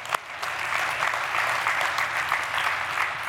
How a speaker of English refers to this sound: Somebody go ahead and clap. Go ahead and have a cultural moment.